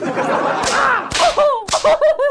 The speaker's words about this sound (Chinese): 你个小孩你听听。你听听你们家放炮噼里啪啦噼里啪啦的声音，像不像打在你身上的鸡毛掸子？